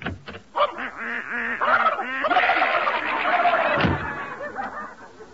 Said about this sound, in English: and the ducks uh, and, and duck still fighting in the pantry?